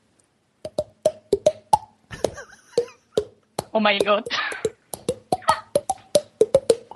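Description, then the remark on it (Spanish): The Super Mario song tapped out by slapping the cheeks: quick, hollow pops with shifting pitch, interrupted midway by a burst of excited talking and laughter. “Te puedo hacer la canción del Super Mario, Pegándome en las mejillas.”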